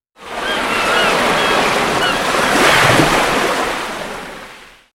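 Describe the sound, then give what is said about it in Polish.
Ocean waves wash in a continuous, loud roar of surf, swelling slightly midway before fading out, as a short seaside-themed jingle with no voices. “Teraz tradycyjnie nasza nadmorska sygnałówka, a potem ruszamy z tematem.”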